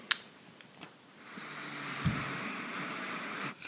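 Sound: beer being poured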